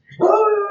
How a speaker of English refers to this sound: That's my dog Reese, probably in the recording, barking.